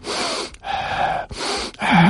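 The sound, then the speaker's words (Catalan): A person imitates breathing with a series of about four loud, airy breaths, quick sharp inhales and exhales in a steady rhythm, with no talking. “Tots sabem com sona la respiració”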